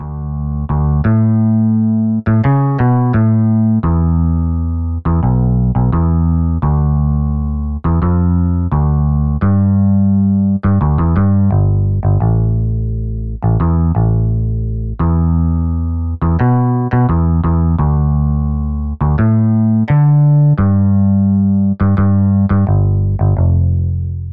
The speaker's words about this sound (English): So, almost spoilt for choice, back in 2010, I plumped for two bass guitar modules, devised a bass line for them both to play in unison, and made an audio file from a blend of the two. Here's a taste of them in action.